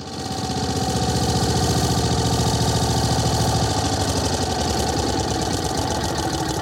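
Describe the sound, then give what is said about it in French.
A lawn mower engine runs steadily and loudly, its rapid chugging drone shifting slightly in tone partway through, with no one talking. “Jusque-là, euh, euh, j'aimais bien euh, raconter des histoires sur les tondeuses à gazon.”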